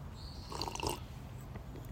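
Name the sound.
slurping coffee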